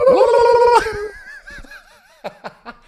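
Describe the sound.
A voice imitates a rapid tongue-wagging trill of a singer wagging her tongue into the camera during a show, a loud warbling vocal burst that trails into wavering tones and a few short breathy bursts.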